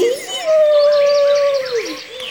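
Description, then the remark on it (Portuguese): A human voice imitates a lion's roar: one long, drawn-out, loud cry that swells up, holds steady for nearly two seconds, then dips and fades. “Tenho muita vontade de ser forte e ser rei! E soltou um grande rugido.”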